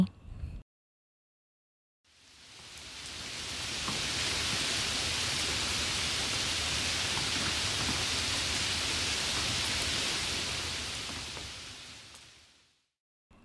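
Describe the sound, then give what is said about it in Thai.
Steady, dense rain patters against a car window, a continuous hiss with tiny droplet ticks that fades in, holds evenly for several seconds, then fades out. “เสียงของสายฝนตกลงมากระแทกกับกระจกรถ ดึงสติของฉันกลับมา วันนี้ ฝนตก”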